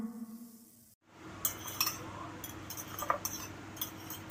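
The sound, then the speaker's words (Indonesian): Plates, glasses and spoons clink and clatter repeatedly in quick, scattered bursts, fairly loud, as a table is set while food is prepared, with a low hum underneath. “Ya udah lo ambil piring, gelas, sama sendok, Gih.”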